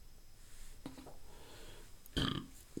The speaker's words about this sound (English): Excuse me, I burped. That just adds to the authenticity of it all.